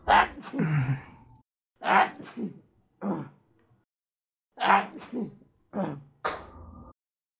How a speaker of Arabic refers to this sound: ايش صار يا شباب في الوقت اللي كنت اعطس فيه؟